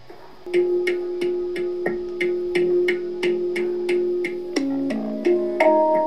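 A handpan played in a steady run of struck notes, each with a bright metallic attack and a warm ringing sustain, the pitch shifting lower then higher near the end. No voices.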